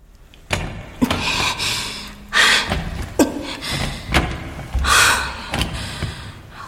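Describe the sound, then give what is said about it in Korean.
A room door's doorknob is gripped with both hands and twisted again and again, slipping out of the grip, a series of sharp metallic clicks and rattling clunks, interspersed with a few strained, breathy exhales. “문손잡이를 제대로 쥐는 데만도 꽤 오랜 시간이 걸렸는데 힘을 주어 잡고 돌리니 미끈미끈하며 소나귀에서 빠져나오는 통에 양손을 다 써서 안간힘을 들여야 했다.”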